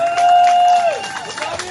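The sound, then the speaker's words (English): A crowd at an event in Florida applauds and cheers for Magic Foot, with scattered clapping and a loud, sustained whistle that slides downward, lively over a short burst. “A huge shout out to Magic Foot for making it happen, ladies and gentlemen. A round of applause.”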